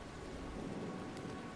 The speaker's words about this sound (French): Et on voit juste la pluie.